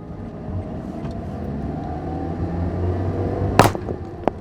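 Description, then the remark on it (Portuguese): A car drives along with a steady road and engine rumble, then a sudden sharp bang bursts out near the end, like a tire blowing, followed by a smaller knock. “que foi isso? O carro castorou, não tem um step.”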